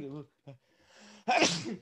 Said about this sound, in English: you like watching me sneeze, you can pay two dollars a month and watch me sneeze on OnlyFans